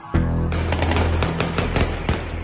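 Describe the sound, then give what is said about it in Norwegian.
Rapid gunfire, a string of sharp, loud cracks fired in quick irregular succession over a steady low droning hum, with no voices. “Og da kom de første skuddene.”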